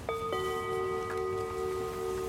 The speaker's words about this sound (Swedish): och då har vi lagt in en fiffig gonggong för att markera mitten på avsnittet. Så när gonggongen ljuder då har det blivit dags att vända om och gå tillbaks. En vändong helt enkelt. Och våran vändong den låter så här.